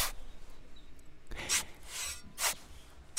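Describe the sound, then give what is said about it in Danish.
Several gritty scraping strokes of soil being dug and sand scraped away very carefully by a handful of archaeologists excavating an important find, in short irregular bursts with quiet pauses between them and no voices. “Det er lyden af jord, der bliver gravet i, og sand, der bliver skrabet væk.”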